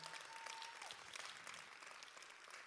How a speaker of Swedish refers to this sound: Ska vi ge henne en varm applåd när vi tackar?